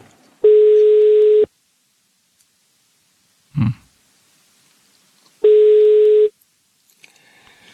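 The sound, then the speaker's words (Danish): A telephone ringback tone on an outgoing call: two long, steady electronic tones, each about a second, separated by a pause, with a brief murmured voice in the gap. “De, de kan ikke høre telefonen.”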